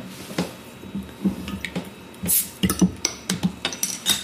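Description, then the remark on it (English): A bottle of sparkling fruit cider is opened: a brief hissing burst of escaping gas amid scattered small clicks, glassy clinks and crackling fizz, with no one talking. “I'm going to open our first fruit cider now.”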